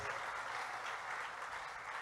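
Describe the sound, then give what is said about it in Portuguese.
Sustained applause from a church audience, given to the Lamb (Christ), a dense, steady wash of many hands clapping at once with no pauses and no voices standing out. “Dá um aplauso ao Cordeiro que fez você membro da família de Deus.”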